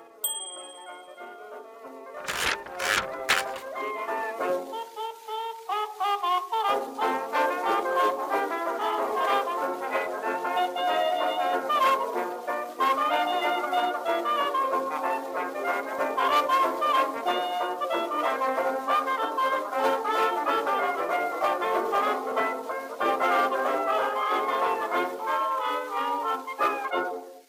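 A lively 1920s Charleston dance band recording, with bright horns and a bouncing rhythm playing steadily at moderate volume; a few sharp clicks open the track before the band comes in.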